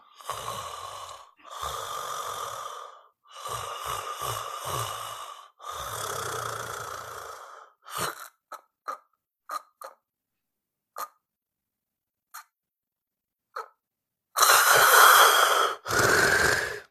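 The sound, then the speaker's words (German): A person imitates sleep apnea snoring: four long, rasping snore-breaths, then a breathing pause of about 10 seconds broken only by faint brief catches and clicks, ending in two loud gasping, snorting breaths. “bei der Schlafapnoe ist es so, dass Mensch, es kommt zu Atemaussetzern, meistens weil die Zunge hinten in den Rachen fällt”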